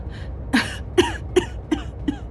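An injured woman in a moving car coughs in a short series of five dry, raspy bursts at a fairly steady pace, each a little weaker than the first. No one speaks.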